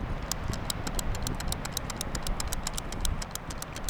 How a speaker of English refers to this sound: She uses hand clickers to count, different ones for each kind of bird.